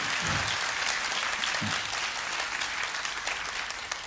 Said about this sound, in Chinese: 我我等我等着大家要拍掌的，要鼓掌通过。